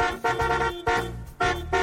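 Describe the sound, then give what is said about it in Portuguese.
A car horn honks three times in quick succession, each blast loud and brassy, with a short gap between them and no voices. “Quem gostou da novidade, buzina aí!”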